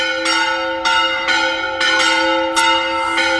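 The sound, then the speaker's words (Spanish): A church bell rings out loudly and steadily in a town square, struck about every half second to second, its rich overlapping tones sustaining and blending between strikes, with no voices present. “Vamos, vamos a dejar, vamos a dejar la campana.”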